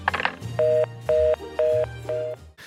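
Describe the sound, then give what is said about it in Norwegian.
An answering machine's end-of-message tone: four short, evenly spaced electronic beeps, clear and fairly loud, with no talking. “Ja, vi har fått så mange meldinger på svareren min.”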